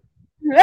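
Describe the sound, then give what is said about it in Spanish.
After a brief silence, a single sudden, loud sneeze bursts out, voiced and harsh, cutting off abruptly. “Se escuchó, pero como un golpazo.”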